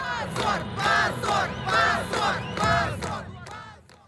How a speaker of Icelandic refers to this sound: Þarna heyrðum við mótmælendum í Kvíta Rúslandi.